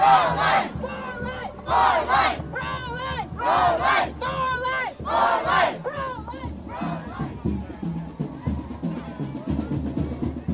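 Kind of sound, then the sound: crowd, crowd chanting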